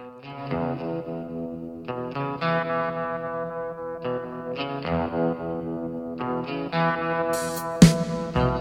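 A French pop-rock song from 1981 plays, with loud distorted, effect-laden guitar chords in rhythmic bursts and no singing, ending in a sharp accent.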